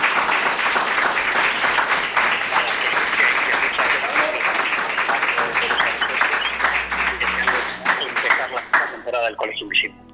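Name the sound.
audience applause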